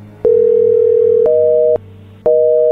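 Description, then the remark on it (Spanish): A redialed phone call to a woman rings out unanswered with steady electronic tones: a long single tone, then two-tone pulses separated by short gaps, loud, with no one answering or speaking. “a ver, márcale de nuevo, a ver si nos contesta, a ver, márcale.”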